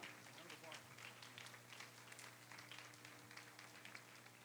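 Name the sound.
audience clapping in applause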